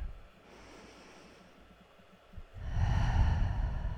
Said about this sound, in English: So let's take a couple of slow, deep breaths together.